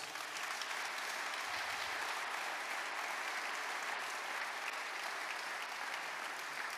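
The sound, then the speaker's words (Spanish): An audience breaks into sustained applause for the word of God, a dense, steady wash of many hands clapping at an even loudness for several seconds, with no clear voices above it. “Démosle un aplauso a la palabra de Dios.”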